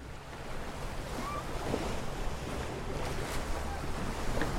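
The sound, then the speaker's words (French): A small boat drifts on an underground river, with a steady wash of lapping, rushing water and faint knocks, continuous, with no voices. “Leurs efforts mettent à jour un couloir étroit et très pentu, menant jusqu'à une barque amarrée au bord d'une rivière souterraine.”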